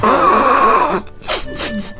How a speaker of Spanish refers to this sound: Qué tonta soy. Todavía ni te cambiaste y ya estoy llorando.